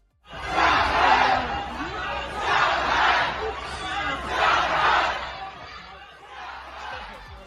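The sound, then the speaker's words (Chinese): A large protest crowd in Shanghai chants the slogan "Down with the Communist Party, down with Xi Jinping" in unison. Loud rhythmic bursts of shouting repeat about four times and grow from quiet to loud, with a constant murmur of voices filling the gaps between chants. “随后，有人带头喊出了“共产党下台，习近平下台”的口号，声音由小变大。”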